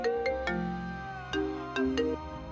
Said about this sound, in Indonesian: Eh tunggu ya, gue angkat telepon dulu. Ini dari dokter Opa.